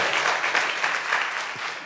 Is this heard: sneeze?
no